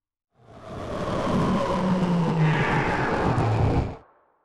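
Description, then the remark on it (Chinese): A spacecraft comes in to land outside a dark plateau on Jupiter, with a loud, steady engine roar and a droning hum that dips in pitch, fading up quickly and cutting out after a few seconds. “就是这里了，我们准备降落，降落在外面，我们走进去。”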